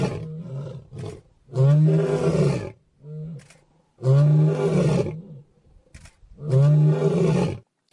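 A lion roars in a series of deep, powerful bellows, three long loud roars separated by short pauses, with briefer grunting calls at the start.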